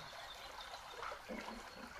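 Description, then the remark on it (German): Water trickles and flows steadily with a soft, continuous splashing and occasional gurgles, gentle, with no voices. “und gibst dich immer mehr diesem Fluss des Wassers hin.”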